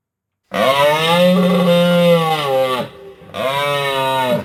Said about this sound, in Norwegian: Det var jo elgen!